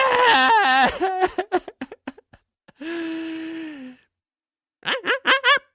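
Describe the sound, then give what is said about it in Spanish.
A voice imitates a crocodile crying: a wavering wail breaks into choppy sobs, then a long drawn-out moan, and after a pause a few more whimpering sobs, fairly loud. “¿por, qué estás llorando?”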